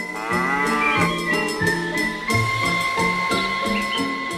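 A cow moos in a long, drawn-out call over a bouncy musical backing with a steady thumping beat and sustained tones; no one speaks.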